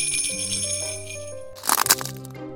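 A small bell jingles in a quick, bright shake lasting under a second, preceded by lingering ringing tones. It's close and fairly loud, with no voices.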